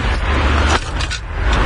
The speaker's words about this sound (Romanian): ce ați auzit e un uh, lanț cu lacăt foarte mare,